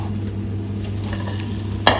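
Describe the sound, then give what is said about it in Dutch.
Steady sizzling of balls of food frying in a pan with a low constant hum, then a single sharp scrape or clack near the end as the balls are turned over. No one speaks. “En dan ga ik de ballen weer even keren.”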